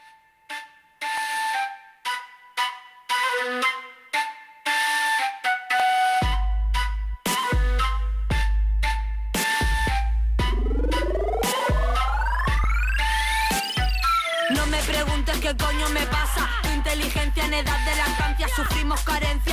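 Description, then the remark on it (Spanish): A recorded song from a new CD plays loud, opening with short rhythmic melodic notes before a heavy bass beat kicks in, then rising synth sweeps build into a full, dense arrangement. “Vamos a reproducir …”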